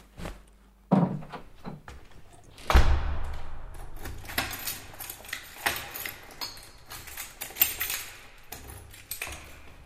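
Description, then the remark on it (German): Rustling and clinking as a bag is packed, then a heavy door thuds shut as the apartment is left, followed by a steady stream of shuffling and jangling clatter as someone heads out of the building. No one speaks. “Unser Held packt seine Tasche, verlässt die Wohnung und begibt sich auf den Weg aus dem Haus.”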